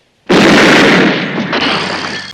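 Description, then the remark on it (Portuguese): A single loud gunshot from a film scene, in which a woman uses a gun to blow a man's head off, cracks out of silence. Then a harsh, noisy roar rings on for about two seconds, fading only slightly. No one speaks. “a violência é muito presente, né, a questão, tipo, dela já usar uma arma para estourar a cabeça de um cara”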